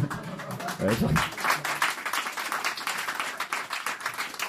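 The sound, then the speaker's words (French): An audience breaks into steady applause, with everyone in the audience clapping: a dense crackle of many hands that holds at an even, fairly loud level throughout, with a brief murmur of voices near the start. “Bah, tout le monde a réussi à applaudir.”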